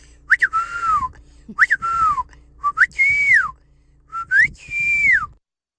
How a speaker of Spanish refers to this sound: ¿cuál es el silbido que tienes en tu familia, papuchón? Échale. Mi familia chiflaba. En la banda ahí en México chiflanos